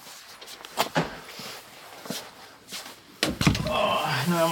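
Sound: door being closed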